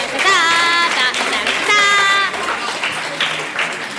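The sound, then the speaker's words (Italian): Loud, steady audience applause after a joke fills the whole four seconds, with high whooping cheers or whistles rising above the clapping in a few bursts. “e con questo signori veramente un grande applausometro.”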